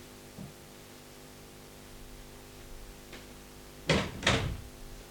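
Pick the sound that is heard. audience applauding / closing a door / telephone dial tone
closing a door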